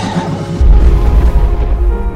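A horse whinnies, a harmonic call that gives way to a heavy, rumbling snort-like blast of low sound lasting a couple of seconds, with no one talking.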